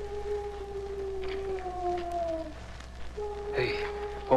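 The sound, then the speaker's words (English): A drawn-out, hollow owl-like hoot rings out outside in a ghost town, fades, then sounds again shortly after, clear and mid-pitched over a steady hiss like falling rain; it resembles a human imitation of an owl and is the Lone Ranger's signal to Tonto. “It's an owl outside.”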